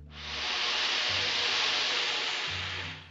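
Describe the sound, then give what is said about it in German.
A steady, breathy rush of air blown through a horn with no musical tone, a loud hiss lasting about three seconds without a break. “Für die Fauchschabe wurde in ein Horn geblasen, aber ohne Ton.”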